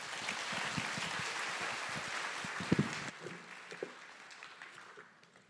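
An audience claps steadily, a dense wash of many hands at moderate loudness. It thins after about three seconds, leaving scattered claps that fade toward the end. No one speaks.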